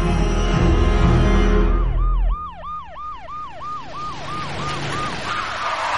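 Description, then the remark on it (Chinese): Police car sirens from seven or eight police cars lined up on Fengxi Road wail in a fast, repeating up-and-down sweep, loud and steady, after a heavy low rumble of engine or traffic noise that cuts off partway through. “第二天，七八辆警车排在那儿了，堵住了两车道的凤西路。”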